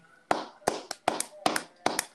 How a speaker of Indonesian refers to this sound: Tepuk tangan.